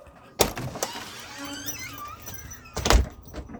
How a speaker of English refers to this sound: Door shut.